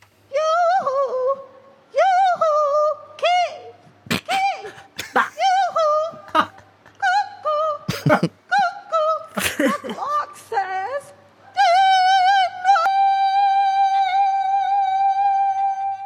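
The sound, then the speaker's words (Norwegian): A woman calls out for her husband as a contest entry for the most unique way of calling a husband, in a series of sharp, high, yodel-like shouts and whoops, ending in one long sustained high note, forceful, with no other talk. “Eh, skal vi bare høre på fjerdeplassen i det å rope etter ektemannen på en mest unik måte?”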